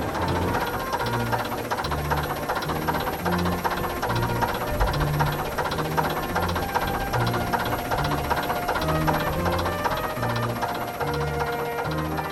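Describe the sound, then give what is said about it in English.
The cold diesel engine of an old bus, mostly duck egg blue with a wide cream band and maroon trim, idles unevenly, a lumpy, knocking rumble with a rattling, hissing edge that stays loud and steady throughout, with no talking over it. “just a bit lumpy when it's cold”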